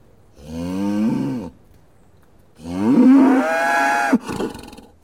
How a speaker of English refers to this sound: A cow? How do I milk that?